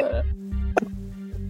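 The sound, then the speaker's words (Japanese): A single gulp as someone swallows a drink, short and wet-sounding, set against a steady low electrical hum with no one talking. “飲んじゃった。”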